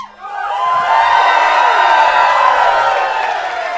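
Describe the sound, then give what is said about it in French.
A live audience of about 3000 packing Le Cléo roars with sustained cheering and whooping, a loud, dense wall of voices that swells quickly and holds steady for several seconds with scattered high shouts on top. “Pour les gens qui nous écoutent, on est 3000 ici ce soir.”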